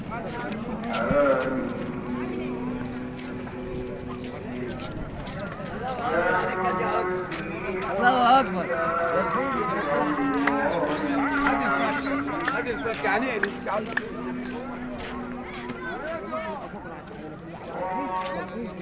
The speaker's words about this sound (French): Marché de l'Esquébier à la limite du centre-ville. Un prêche lancinant couvre le bruit des commerçants.